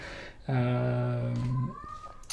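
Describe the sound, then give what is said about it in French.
A single long, low, drawn-out yowl from a cat in heat, loud, holding steady for about a second before cutting off into quiet background noise. “Bah, bougez pas deux secondes, je vais juste fermer ma porte parce que j'ai un, de mes chats qui est en chaleur et qui miaule c'est désagréable.”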